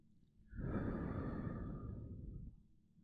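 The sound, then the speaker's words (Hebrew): A long, deep exhale of a held breath during a guided breathing exercise rushes out, breathy and steady for about two seconds before trailing off into quiet. “ולהוציא.”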